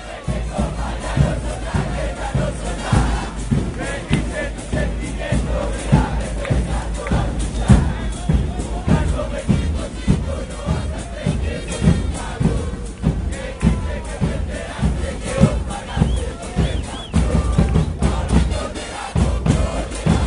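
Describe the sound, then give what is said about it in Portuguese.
A large stadium crowd chants in unison, a dense, steady roar of many voices with rhythmic pulses and occasional thuds, continuous and loud throughout. “O Som das Torcidas”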